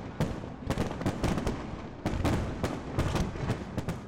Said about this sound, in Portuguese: Na Austrália, o show de fogos de artifício aconteceu sobre a ponte da Baía de Sydney, um dos pontos turísticos mais conhecidos do país.